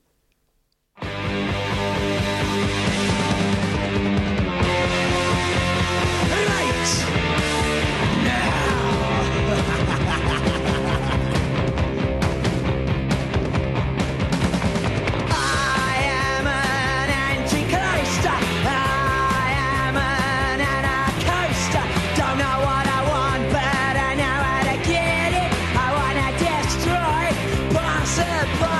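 A British punk rock single blares at full volume after a brief silent start, with dense, distorted guitars and pounding drums driving steadily throughout without a break.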